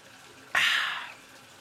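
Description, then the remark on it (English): A short burst of hot water gushing from a tap into a bathtub the speaker is sitting in, added to heat the bath. It starts abruptly, rushes for about half a second, then tapers off into quiet. “oh, I got to put some hot water in this bitch and get some water, get a drink of water.”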